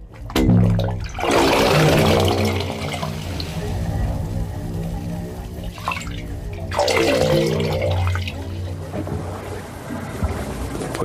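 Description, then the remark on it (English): Hollow, resonant pipe tones of a wave organ drone and shift in pitch as tidal water surges and gurgles through them at the edge of the ocean, with two louder rushing swells of sloshing water rising and fading. No voices. “The wave organ's song is always changing, much like the tide itself and the city it sings to.”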